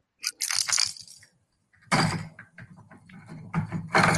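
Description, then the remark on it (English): A Trerero fishing lure rattle shaken in loud, rapid bursts, a short burst, a brief pause, then sustained shaking, giving a bright, hissy clatter like a shaken aerosol can. “Sounds like an aerosol, like rust can.”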